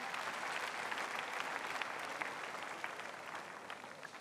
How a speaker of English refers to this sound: Let us clap for Jesus Christ.